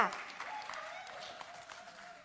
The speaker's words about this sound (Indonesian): Baru hari Senin kemarin kita 17 Agustus kita merayakan Hari Kemerdekaan Indonesia. Tepuk tangan dong untuk 75 tahun Indonesia.